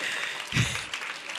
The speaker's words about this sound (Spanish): Denle otro aplauso mientras pasa la pastora, si es que puede.